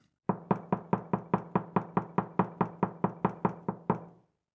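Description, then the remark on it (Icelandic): A long, steady run of about sixteen firm knocks on a wooden door, evenly spaced, each with a short resonant thud, ending abruptly in silence; a soundtrack from a sound artwork. “Veltum fyrir okkur hvað að segja um okkur hvernig við böngum á dyr.”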